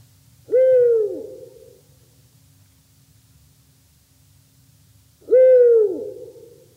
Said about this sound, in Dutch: Welk geluid bespreken we dan? de oehoe. En die klinkt wellicht zo.